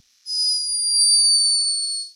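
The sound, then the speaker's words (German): A sleeping hummingbird's snore: one long, thin, high-pitched whistling squeak that holds steady for about two seconds, drifting slightly lower in pitch before stopping. “Das ist ein schlafender, also ein schnarchender Kolibri.”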